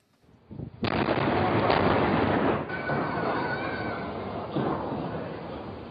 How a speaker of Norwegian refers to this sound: Stridsvogner som skyter inne i byen, sivile som vifter med hvite flagg og løper for å komme unna. Bydelen Baba Amro i Homs ligger i ruiner etter å ha vært beleiret og beskutt i over tre uker.